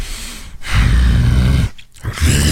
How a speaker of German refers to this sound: Ich könnte schwören, das Knurren wäre echt.